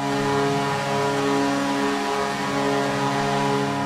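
A loud truck air horn, used as the Edmonton hockey goal horn at its home arena, blares in one continuous, steady blast for about four seconds, its deep chord-like tone holding unchanged throughout with no voices.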